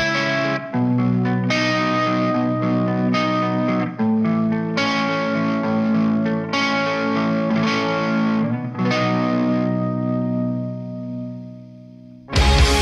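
A young band plays a loud rock song with heavily distorted, chorus-washed electric guitars that hold steady chords and shift every couple of seconds. No vocals come in before it cuts off abruptly.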